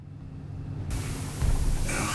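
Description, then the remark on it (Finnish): A steady low rumble of a train on the move, with a hiss of rushing noise swelling in partway through and a heavier surge shortly after; no one speaks. “Hän siirtyy aikaan, jossa juna kuulostaa tältä.”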